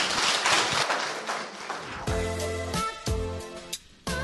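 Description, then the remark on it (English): A dense burst of crowd applause fills the first couple of seconds, then gives way to a bright musical sting with sustained tones and no talking. “big round of applause for Elizabeth”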